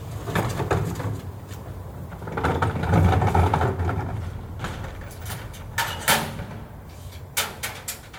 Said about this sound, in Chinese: 收垃圾的，这是我家门口的垃圾箱。它在五点的时候就已经开始收我家门口的垃圾了。它其实，在四点的时候就开始收那边的垃圾了。